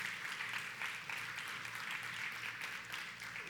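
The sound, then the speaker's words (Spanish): A crowd in a church applauds steadily throughout, a dense roar of many hands clapping at once with no voices rising above it, holding at an even, fairly loud level for a few seconds. “Dios les bendiga, un aplauso fuerte para todos aquellos que han decidido estar aquí en la casa del Señor.”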